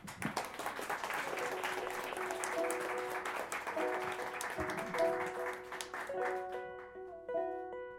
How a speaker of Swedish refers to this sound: En stor applåd